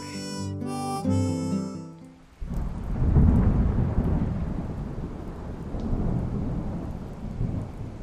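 A brief sustained musical tone gives way to a deep, rolling rumble of thunder over steady, hissing rain that continues fairly loud to the end, with no voices.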